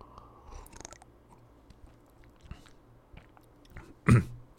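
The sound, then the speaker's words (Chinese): Someone takes a quiet sip of water: soft wet mouth clicks and faint swallowing noises, then a short, louder gulp or clunk near the end, with no talking. “哦，我先喝口水。”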